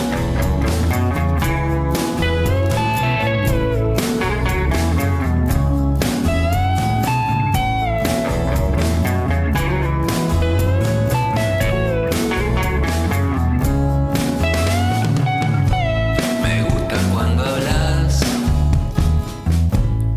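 A loud, full-band rock song plays continuously from a recording, with steady pounding drums, driving bass and bright sustained guitar or vocal lines throughout, and no talking over it.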